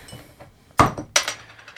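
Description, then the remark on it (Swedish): A small glass bottle being opened: two sharp metallic clicks about a third of a second apart, with a brief glassy clink, over a quiet background with no one talking. “Ja, öppna den här flaskan.”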